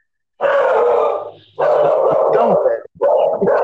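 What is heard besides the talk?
dog barking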